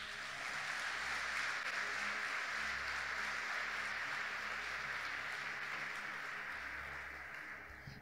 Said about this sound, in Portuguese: Você pode dar um aplauso bem forte para o Senhor?